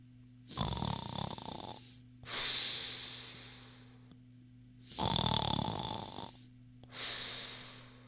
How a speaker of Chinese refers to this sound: 可是睡觉的河马。只管睡他的觉，打他的呼噜。